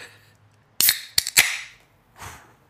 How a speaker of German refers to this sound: Es tut mir jetzt fast leid, dass wir jetzt aber, diese frische Dose öffnen.